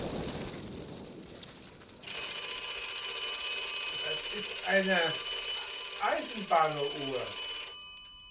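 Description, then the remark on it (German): An alarm clock rings loudly and steadily for several seconds without pausing, while a man's voice speaks briefly over the ringing before it cuts off abruptly. “der hört nicht mal auf zu klingeln.”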